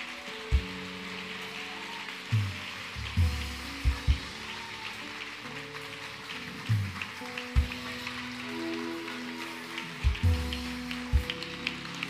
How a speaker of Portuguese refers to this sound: E eu queria que você ficasse de pé. E que você expressasse através de palmas para eles a sua gratidão.